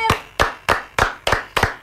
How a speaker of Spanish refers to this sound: El aplauso.